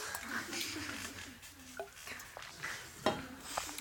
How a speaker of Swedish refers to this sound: Det där lät gott. Ehm, jag tar lite vatten på det då.